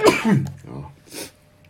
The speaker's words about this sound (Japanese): くしゃみが出た。